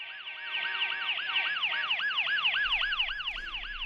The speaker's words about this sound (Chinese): 从手机里传来的汽车喇叭声、救护车的警笛声来判断，那应该是在大马路上。